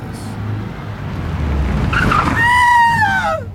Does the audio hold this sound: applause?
no